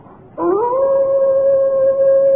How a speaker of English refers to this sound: They say it's the cry of the hound of the Baskervilles, seeking its prey.